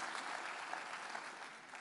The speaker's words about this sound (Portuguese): Glória a Deus, aplauda ao Senhor, em nome de Jesus.